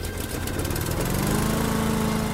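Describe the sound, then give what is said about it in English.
A gas-powered lawnmower engine runs steadily while trimming grass, a loud continuous droning rumble with a slight rise in pitch partway through, no voices present. “That's the job of the gas powered lawnmower.”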